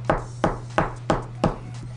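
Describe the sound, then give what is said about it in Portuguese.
Five sharp knocks on the door of a huge house with a gate in the Jardim Europa neighborhood, in a steady, evenly spaced rhythm, clear, with a low steady hum underneath and no voices. “Aí você bate na porta.”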